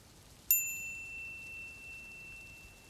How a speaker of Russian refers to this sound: Раздается звук гонга.